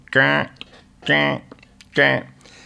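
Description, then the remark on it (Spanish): A voice imitates a keyboard riff, singing three short, evenly spaced syllables in a steady rhythm, clear with brief pauses between them. “es una cosa muy típica de solo, a veces, que es un teclado que hace”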